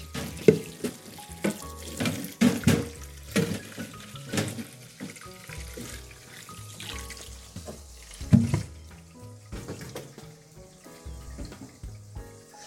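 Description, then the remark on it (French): Water runs into a sink to soak separated green lettuce leaves, with a steady splashing rush broken by irregular clunks and sloshes as the lettuce is handled in it; no one speaks. “Et je vais venir l'immerger dans l'eau pour la mettre à tremper.”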